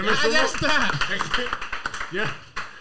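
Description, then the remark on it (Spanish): An audience breaks into applause, a dense patter of clapping mixed with shouting and cheering voices that carries on steadily for a few seconds before tapering off. “Un aplauso para.”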